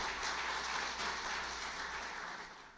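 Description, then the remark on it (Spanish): Steady applause from a church audience, given to the Lord, a dense wash of many hands clapping together at an even level for a few seconds, easing off slightly at the end. No voices stand out. “tenemos todos los domingos más de 600 personas viendo nuestro servicio y yo estaría dando un aplauso al Señor por eso.”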